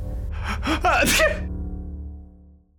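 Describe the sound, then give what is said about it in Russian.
A single sneeze performed by a human voice after the nose is tickled by a smell of incense, opening with a few rising breathy gasps and ending in a sharp, loud burst, followed by a low fading hum. “в носу защекотало, и он чихнул.”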